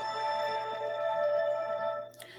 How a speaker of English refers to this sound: Right, before we start, um, will you just let me know if you can hear the music and you can hear me?